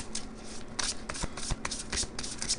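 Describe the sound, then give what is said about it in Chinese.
Tarot cards being shuffled before drawing cards for a tarot reading, in a steady run of soft, crisp riffling bursts, with sharper taps and slaps as the deck is squared between them, and no voices. “好，我们来抽牌。”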